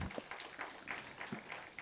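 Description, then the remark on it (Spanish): A crowd claps together in a steady, continuous wash of applause for Christ during a church service, with a few sharper individual claps standing out. It is fairly soft, with no clear voices. “Dele un aplauso a Cristo en este día, en el nombre de Jesús.”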